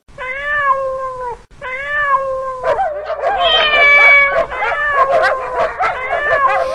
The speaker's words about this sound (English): Soon, all the dogs were barking.